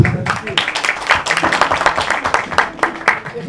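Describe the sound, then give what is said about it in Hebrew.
A crowd applauds steadily for a few seconds, many hands clapping in a dense, crackling patter that stays fairly loud throughout, with faint voices murmuring underneath. “על מה מחיאות כפיים אני לא יודע, תאמין לי.”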